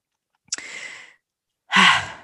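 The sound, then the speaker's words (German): A drawn-out breathy yawn: a soft opening intake, then after a short pause a louder, voiced exhale, with no talking. “So, und jetzt muss ich gähnen.”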